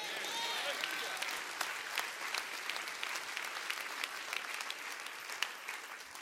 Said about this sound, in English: Somebody clap your hands and say amen to that.